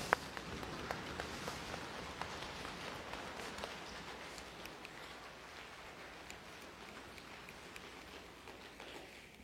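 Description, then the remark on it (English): A group makes a rainstorm with their hands and feet: dense, continuous patter of rubbing, snapping and clapping that swells, with steady stomping underneath, gradually easing off toward the end. “Sounds like a rainstorm so much better than when Hugh and Chuck and Dave and them were trying to do this”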